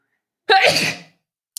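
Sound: sneeze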